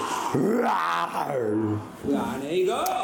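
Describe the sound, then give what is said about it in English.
A person roars in imitation of a lion, the Lion of Judah, two drawn-out, throaty vocal bursts with a rising and falling growl, loud, separated by a brief pause. “We need to hear the roar of the lion.”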